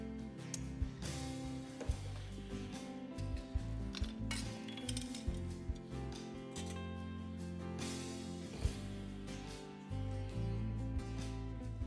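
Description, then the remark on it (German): Dishes and cutlery clatter and clink irregularly as a table is cleared at a church audience meal, a steady stream of small knocks and scrapes with a few sharper clanks, over a constant low background hum. “genau, dann darf auch gerne mein Tisch hier weggeräumt werden.”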